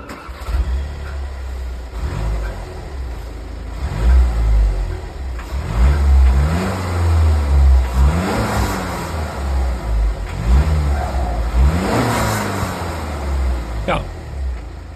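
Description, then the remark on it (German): The diesel engine of a very popular car revs repeatedly with the microphone close to the exhaust, with several rising and falling throttle bursts over a steady low rumble, loud throughout. “Aber erstmal starten wir mit dem Sound dieses Fahrzeugs.”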